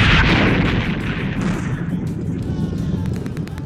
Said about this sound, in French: Ils explosèrent tous trois, projetant la tête de Zeta à plusieurs mètres devant lui, au pied de Crénon, le chef des IX de rage.